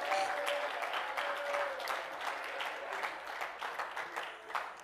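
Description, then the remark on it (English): A crowd claps steadily and enthusiastically in praise for several seconds, a dense, sustained wave of handclaps, with a few faint voices rising briefly beneath it. “Oh, let's clap our hands and praise Him again tonight.”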